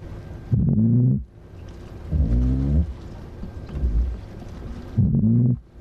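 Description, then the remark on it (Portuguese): Underwater calls of a Lusitanian toadfish in the Tagus River estuary, picked up by a listening point at the Belém river station: three loud, low, buzzing boatwhistle hums, each under a second, spaced a second or two apart, with a fainter grunt between them over soft background hiss. “Este é o som de um peixe do Charroco, no Rio Tejo.”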